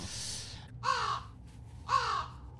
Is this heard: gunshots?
no